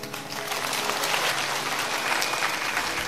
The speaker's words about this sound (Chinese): 我们给掌声，也给朱丹加加油。